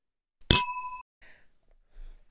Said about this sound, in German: Dann stoßen wir jetzt auf unsere grandiose Liedauswahl an. Prost! Ich wollte gerade sagen, wir haben schon lange nicht mehr getrunken. Cheers!